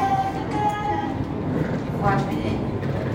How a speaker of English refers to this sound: I'm on platform B, B of uh, Chambéry railway station, there's an Italian train that's gone from Milano Centrale, Milan Central, and it's going to Gare de Lyon. It's running about 25 minutes late so far.